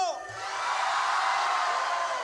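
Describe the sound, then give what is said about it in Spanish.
A large crowd erupts in a sustained, loud roar, shouting a cry of jubilation and cheering. Many voices blend into one dense wash of noise that holds steady for about two seconds. “Grite otra cosa en el grito de júbilo.”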